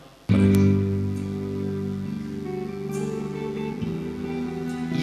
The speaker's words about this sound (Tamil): okay தம்பி நீங்க கொஞ்சம் கிட்டாரை கொஞ்சம் தட்டுங்க பார்க்கலாம்